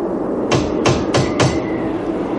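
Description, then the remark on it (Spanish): Four cautious knocks on a door in a steady, even rhythm, distinct, with no voices around them. “Poole llamó con unos golpes cautelosos.”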